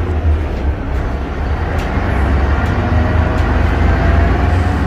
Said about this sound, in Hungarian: Ezen a héten pénteken találkozhatnak az utasok utoljára az Ikarus 260-as és az Ikarus 435-ös típussal és ezzel a hanggal.